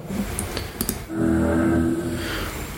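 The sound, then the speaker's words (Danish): A deep, ominous vehicle horn sounds a long, loud, sustained blast with a brooding two-tone quality, preceded by a second of light clicking and rumbling, with no voices. “Det lyder som noget Hitchcock, eller? Ja, det er dødens gab.”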